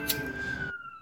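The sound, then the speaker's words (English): An emergency vehicle siren blares on a city street in Newark, a sustained high wailing tone over a low traffic rumble, fairly loud, with the background cutting away near the end. “And I apologize for the sirens.”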